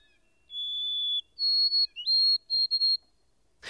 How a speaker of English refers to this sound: I at last discovered that it was the white throated sparrow, a common bird all through this region. Its song is very delicate and plaintive, a thin, wavering, tremulous whistle